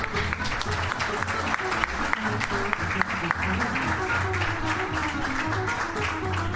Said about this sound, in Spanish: Un aplauso, por favor, a la...